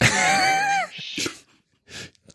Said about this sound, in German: Die Katze macht auch schon mit.